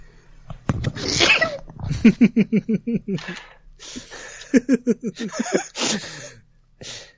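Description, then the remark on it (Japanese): A sharp sneeze bursts out near the start, followed by two rounds of rhythmic, breathy laughter and a few small exhalations. “お大事に。”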